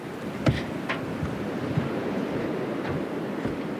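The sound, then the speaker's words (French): Small waves lap softly against the hull of an anchored boat, heard while walking on its deck, a steady low wash broken by a few light splashes and knocks, fairly quiet, with no one speaking. “On entend un petit peu le clapot des vagues.”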